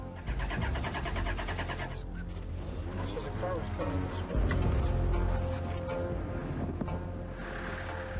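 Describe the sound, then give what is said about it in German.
A car engine labors and sputters, trying to start because of a clogged fuel line, its rough mechanical rumble loud throughout, with voices talking over it. “Unser Auto macht Probleme. Die Benzinleitung ist verstopft.”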